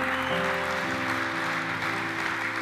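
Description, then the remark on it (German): A crowd applauds steadily, a dense, even wash of clapping that lasts the whole moment, with sustained low musical tones held underneath. “Gib den beiden mal einen richtig großen Applaus.”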